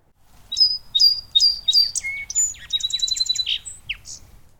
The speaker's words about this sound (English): So, today I'll be talking about a bird you have around you no matter where you are in the U.S. the song sparrow. This common bird is widespread and best known for its piercing song.